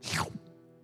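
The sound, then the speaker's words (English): A person makes a single quick mouth sound imitating oil stopping as it pours out of a jar, a short wet whoosh that sweeps downward and ends in a soft plop, followed by a faint ringing tail. “That's what it sounds like when oil stops supernaturally pouring out of a jar, if y'all didn't know.”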